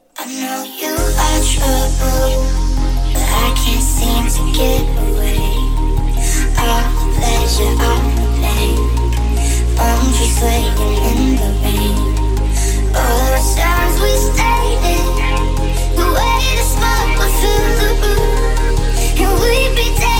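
A loud electronic dance music remix plays steadily throughout, with a heavy sustained bassline that shifts to new notes every few seconds under bright, dense synth layers. No one speaks.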